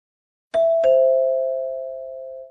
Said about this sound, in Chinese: 此时门铃响了起来